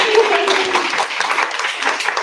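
A group applauds with a steady, dense patter of clapping lasting a couple of seconds, with a brief faint vocal tone at the start.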